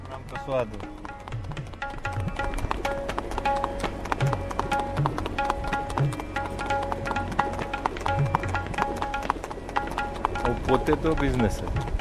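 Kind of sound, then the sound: animal, horse hooves clip-clopping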